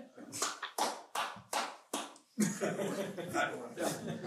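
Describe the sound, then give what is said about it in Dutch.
Applause that starts with five slow, loud, evenly spaced claps, then breaks into a steady burst of quicker clapping with voices mixed in. “Dat is de tweede keer dat je een applaus geeft.”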